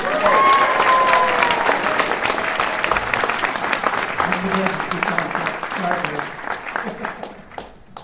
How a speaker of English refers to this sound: Everyone applaud